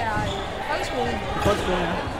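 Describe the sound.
Balls bounce repeatedly across a busy indoor hall, thuds echoing off hard walls while children's voices chatter and shout in the background.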